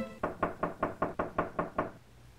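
Eight brisk, evenly spaced knocks rap on a wooden door, clear, then stop, leaving quiet room tone. No voices are heard.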